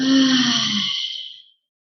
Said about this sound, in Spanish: Una vez más, inhalo profundo, preto. Exhalo, libero jadeo.